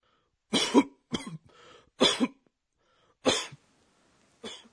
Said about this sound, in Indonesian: Kita gunakan goho-goho untuk batuk berat. Goho-goho menggambarkan bagaimana seseorang sampai merasa kesulitan bernafas karena batuk.